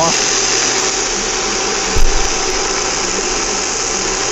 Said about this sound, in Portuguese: Posso mostrar o barulho do, do, do, do bifinho? O barulho. Tá só o barulhinho.